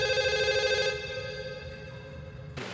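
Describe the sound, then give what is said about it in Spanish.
A telephone rings in a hangar with a steady electronic tone, loud for the first second and then continuing more softly before cutting off. No one speaks over it. “En el hangar el teléfono suena.”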